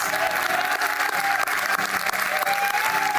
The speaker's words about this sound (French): Est-ce qu'on peut donner une réelle acclamation en 2022 à Jésus-Christ